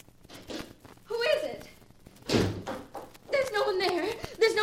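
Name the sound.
door being opened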